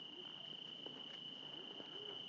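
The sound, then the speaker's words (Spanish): A cricket chirps in a steady, unbroken high-pitched trill that runs the whole time, while faint voices murmur softly in the background, on deserted streets. “¿Eso qué es? Eso es un grillo, ¿no?”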